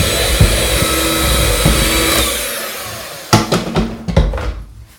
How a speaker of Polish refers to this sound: Teraz dodaję drugą, trzecią część mąki wymieszanej z proszkiem. I to samo, rozpoczynam miksowanie na wolnych obrotach.